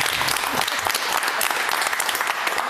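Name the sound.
studio audience applause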